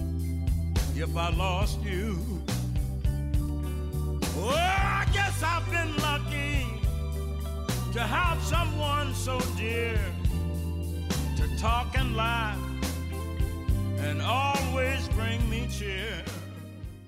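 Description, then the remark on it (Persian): A band plays steadily in 6 time with melodic lines over a bass groove, while crisp snare drum cracks land on the fourth beat, punching through the mix in each bar. “این هم پس کسر میزانش 6 هست توی ریتم 6 معمولا ضرب اسنر روی ضرب چهارم زده میشه و حالا 6 که ما توی موسیقی غربی داریم یه بار دیگه گوش بدید اسنر درام رو اون صدای تق اون صدایی که اینجوری میاد روی درامز اون اسنر هست اون ضرب توی ضرب چهارمه اگه خوب گوش بدید”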